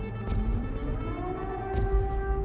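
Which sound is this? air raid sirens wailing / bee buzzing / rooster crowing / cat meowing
air raid sirens wailing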